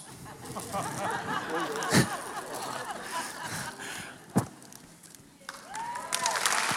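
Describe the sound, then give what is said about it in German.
A crowd claps steadily for several seconds at a celebration of a couple's 50th wedding anniversary, a dense crackling applause with murmured voices mixed in and a couple of sharper, louder knocks standing out partway through. “Ja, Applaus, ihr könnt hier Platz nehmen.”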